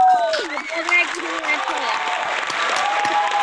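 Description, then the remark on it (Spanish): A burst of steady, fairly loud applause from a small group, with voices cheering and calling out over the clapping at the start before the clapping carries on evenly. “Un aplauso.”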